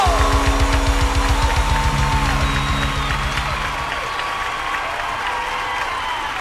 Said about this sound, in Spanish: Grito de júbilo.